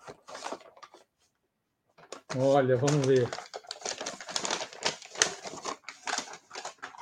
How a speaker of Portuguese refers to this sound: Deu um nó aqui. Tem uma tesoura aí? Não temos. Ah, tô, tô conseguindo, tô conseguindo. Essa produção tem que facilitar a vida do apresentador. Imagina isso aqui na Globo, quanto já ia ter gastado tempo para abrir uma sacola.